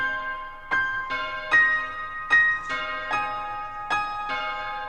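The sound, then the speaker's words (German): A soft piano figure, played with one finger of the left hand, plays evenly spaced notes, about six in five seconds, each ringing out into the next, with a bell sample replacing the last note shimmering among them. No voices. “Ein leises Piano und eine Glocke.”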